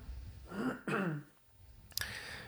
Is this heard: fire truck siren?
no